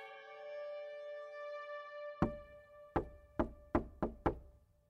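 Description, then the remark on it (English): Knocking on the large wooden door of number 10 Surgeon's Square: one knock, a pause, then five quicker raps that speed up. The knocks are distinct over a steady, sustained humming tone. “David Patterson heard the soft knock at the large wooden door of number 10 Surgeon's Square as he tidied up the dissection room, the signal, he assumed, of another delivery.”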